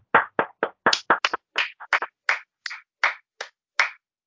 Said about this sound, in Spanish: Señores, aplauso.